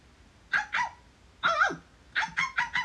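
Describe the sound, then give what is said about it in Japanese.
A smart speaker (Alexa), asked to imitate a dog, barks in three quick bursts: two sharp barks, a single drawn-out one, then a rapid string of four. The barks are moderately loud, with no talking. “アレクサ、犬のモノマネ。”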